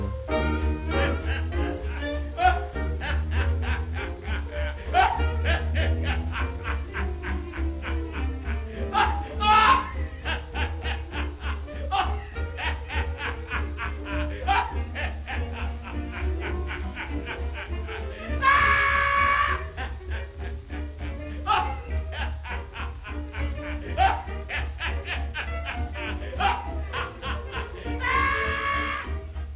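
An old, crackly jazz stomp with a steady bouncing beat and horns, broken by loud, high cackling bursts of controlled, musical laughter meant to resemble a hyena's cry, most prominent near the middle and at the very end.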